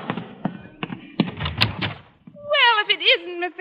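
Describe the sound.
A door opens with a rattle of the latch, a few clicks and a dull thump as it is answered, and then a person starts talking right after.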